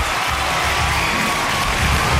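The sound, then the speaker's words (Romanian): Steady, dense audience applause fills the whole stretch, a continuous wash of many hands clapping at an even level with no clear individual claps standing out. “aplauze încă o dată, bravo!”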